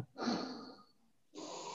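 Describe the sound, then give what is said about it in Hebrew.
A long, deep breath drawn in during a seated, eyes-closed guided breathing exercise, taken deep into the pelvis, airy and slightly wheezy, followed after a short pause by a second steady breath of air. No talking. “אוקיי, לעצום עיניים, ניקח נשימה עמוקה אל האגן,”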